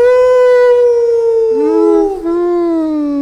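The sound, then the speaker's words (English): A man's voice imitates a wolf howl in one long, loud, sustained tone that slowly falls in pitch, wavers and dips, then rises briefly and trails off, heard alone. “I wandered over to the Battleborn farm and then I jumped up on this wall and I and I howled like this.”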